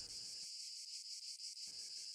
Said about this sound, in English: They heard the cicada singing in the rotten willow, saw the fire star rolling to the west.